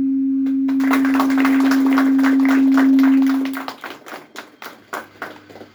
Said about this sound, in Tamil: முக்கியமாக இந்த சிறு குழந்தைகளுக்கு ஒரு கரகோஷம்